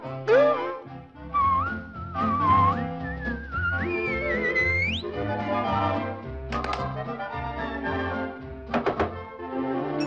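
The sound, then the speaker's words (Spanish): Bright whistled notes slide and rise in pitch over a lively instrumental backing, with crisp percussive knocks punctuating the tune throughout. “dame un silbidito, dame un silbidito.”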